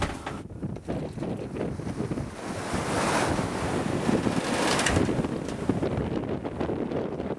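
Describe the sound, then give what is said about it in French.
Steady wind roars across the microphone aboard a sailboat in the Bay of Biscay, sailing toward Finisterre, mixed with the rush of waves and surf, building slightly in the middle and staying loud and continuous throughout. “On a fait une petite option tactique à la côte espagnole cette nuit qui est bien payante parce qu'on a du vent maintenant.”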